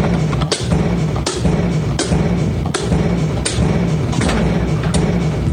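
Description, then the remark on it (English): A bucket drum beats out a steady rhythm, sharp hollow strikes landing about every three-quarters of a second over a continuous low background wash, with no voices. “sounds like another bucket drum.”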